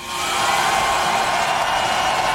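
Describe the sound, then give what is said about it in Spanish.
Fernando Alonso's Formula 1 car arriving at the pit box in Qatar, at the circuit hosting the Formula 1 World Championship for the first time: a loud, steady, high-pitched mechanical whine and rush of noise held constant for a couple of seconds, with no voices. “Es Fernando Alonso llegando al box en Qatar, en el circuito que por primera vez acogía el Campeonato del Mundo de Fórmula 1.”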